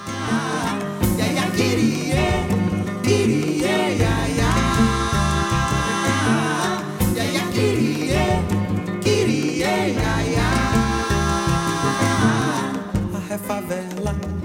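A full-band song plays loudly and continuously, with steady rhythmic accompaniment, layered instruments and a melodic line throughout, consistent with Brazilian popular music; no talking over it.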